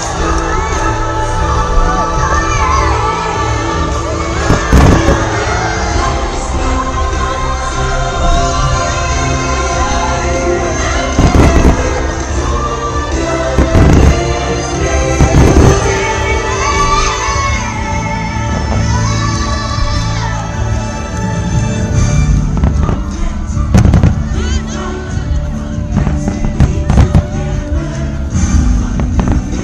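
New Year fireworks burst in sharp, irregular booms over a loud, continuous wash of music and a cheering, shouting crowd.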